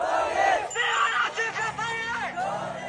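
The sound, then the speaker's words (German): A large crowd at a protest demonstration in Myanmar against the military coup chants and shouts together in rhythmic bursts, loud, with many voices rising and falling in unison over a constant background roar. “Wir sehen oder wir hören ähm, Demonstrationen die am 1. Februar begonnen haben, nachdem das Militär die demokratisch gewählte Regierung ähm, aus dem Amt gehoben hat, geputscht hat.”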